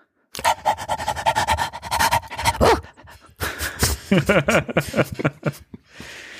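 A dog pants rapidly and steadily, a rhythmic burst of breaths, then gives a few short, pitched barking yelps before fading into quiet rustling.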